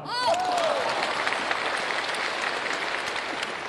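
An audience bursts into sustained applause, a dense, steady clatter of many hands clapping at even loudness throughout, with a brief rising whistle or voice cry at the very start.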